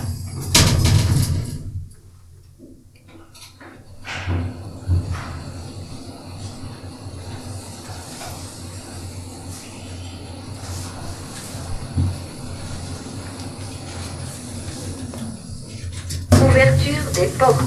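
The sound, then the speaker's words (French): Elevator doors slide shut with a soft thud, then a steady low mechanical hum and faint rumble carry on as the cabin rises, ending with a brief clunk and chime-like tone on arrival at the fifth floor. “On va donc passer donc, les ascenseurs.”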